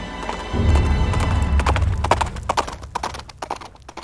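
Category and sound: animal, horse hooves galloping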